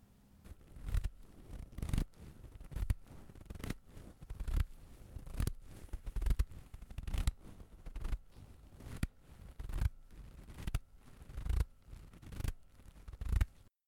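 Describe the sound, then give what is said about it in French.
Heavy, muffled footsteps crunch through snow in a mountain landscape at a slow, steady pace, about one step per second, with no voices. “Déjà, ça commence par des bruits de pas, des bruits sourds et lourds.”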